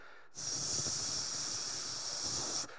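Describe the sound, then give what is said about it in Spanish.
A person makes a steady, breathy "shhh" hiss with the voice, imitating the pink white noise played for a child at bedtime, holding it evenly for about two seconds before stopping. It is fairly loud, with no other sounds. “le ponemos su abanico, le ponemos su ruido blanco rosa, ese ruido que es así”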